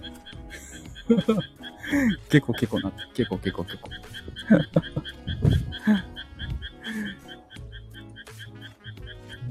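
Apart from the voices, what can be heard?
frogs croaking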